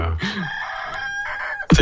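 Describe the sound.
A person imitates a rooster, giving one long, loud, drawn-out cock-a-doodle-doo, ending with a short sharp burst of sound.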